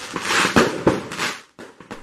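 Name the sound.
firecrackers popping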